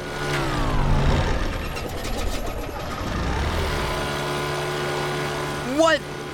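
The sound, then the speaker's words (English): A droning propeller engine of an old bush plane falters and sputters for a couple of seconds, losing its steady hum, then catches again and settles back into a constant roar. “Uh, it sounded like the engine died for a second. These old bush planes do stuff like that all the time.”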